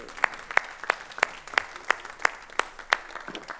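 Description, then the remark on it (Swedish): Audience applause at a worship service for the singers: steady, rhythmic clapping with about eleven sharp claps in even succession, as if in unison, over a faint crowd murmur and no speech. “Amen, de är värda en applåd till tycker jag.”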